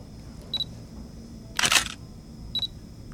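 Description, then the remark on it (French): A James Webb Space Telescope shutter fires with a short mechanical click-whirr, framed by two brief high electronic beeps, one before and one after, over a faint steady hiss. “Eh non, bien essayé, mais il s'agissait euh, d'un shift du télescope James Webb.”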